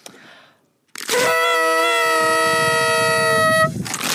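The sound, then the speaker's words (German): A toy horn (Tröte), blown by two people together, blares in one long, loud, buzzy blast lasting over two seconds, harsh and brassy with a slight wavering pitch, after a brief quiet moment. “Und darf ich noch einmal in die Tröte blasen? Ja, komm, wir blasen nochmal gemeinsam.”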